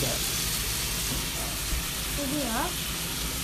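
Chicken sizzles steadily in a hot frying pan, cooking for about five minutes before vegetables are added, a constant crackling hiss throughout, with a brief faint voice-like sound rising partway through.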